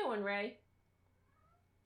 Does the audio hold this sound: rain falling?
no